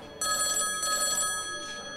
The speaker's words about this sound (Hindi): इतने में सतनाम के टेबल पर रखे फोन की घंटी घनघना उठी